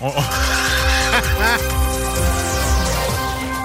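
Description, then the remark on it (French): A chair squeaks several times in close succession, with high, wavering, whiny tones sliding up and down over a low background rumble. “Je pense que ta chaise crie Aidez-moi.”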